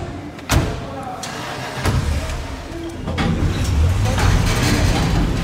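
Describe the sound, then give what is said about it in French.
People climb into a car: a sharp door thud, a couple of softer knocks and shuffles, then a low engine rumble building beneath muffled voices. “Montez dans la voiture, on y va.”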